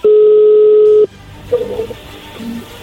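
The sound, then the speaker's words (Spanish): A telephone ringback tone sounds once, a loud steady hum lasting about a second, then cuts off into quiet line noise and faint clicks as the call connects. No one speaks. “No haga ruido, ahí entró la llamada.”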